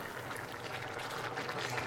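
A pasta pot bubbles steadily on the stove, a dense, continuous simmer of small pops and gurgles, with no voices over it.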